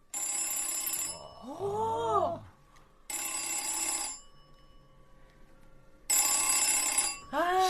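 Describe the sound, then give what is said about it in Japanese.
An old telephone bell rings in three rapid, rattling bursts of about a second each, separated by short pauses, clear, with a brief voice heard between the rings. The bell is rung through a broadcast station's modular jack signal when a director presses a button. “これをつなげて、ディレクターがそのボタンを押すとベルが鳴るらしいんです、ちょっとモジュラー端子つなげてみますね、つなげました、ではお願いします。”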